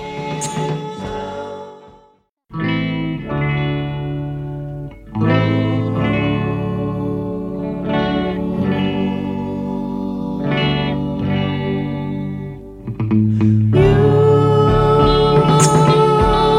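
A 1960s-style pop song plays with strummed guitar, steady rhythm and layered vocal harmonies, starting after a brief pause, carrying a chorus-like shimmer and building louder toward the end.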